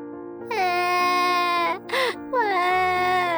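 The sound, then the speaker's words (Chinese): A baby triceratops cries in two long, high, wavering wails split by a brief squeaky yelp, sounding much like a sobbing infant, loud and steady throughout with no talking. “突然间，有一只三角龙宝宝哭了起来。”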